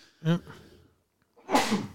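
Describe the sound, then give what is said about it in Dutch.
A single sharp sneeze bursts out, followed by a brief pause and then a noisy, breathy exhale or second sneeze-like sound. “Gezondheid.”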